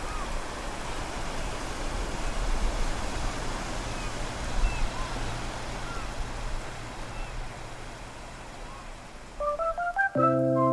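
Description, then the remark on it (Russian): A steady, rushing wash of sea waves rolls in continuously at the Sudzhuk Spit (also called Aleksina) in Novorossiysk, Russia, then gives way to a short run of electronic beeping tones at the very end. “Последнюю прогулку – мы проведем к морю, к Суджукской косе в Новороссийске.”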